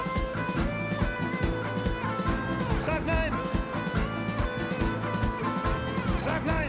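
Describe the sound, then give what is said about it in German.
A German protest song plays loudly and steadily at a demonstration, with full instrumental backing under a voice repeating a short chanted refrain twice in a forceful, rhythmic delivery. “Das Lied von … machte es nochmal deutlich”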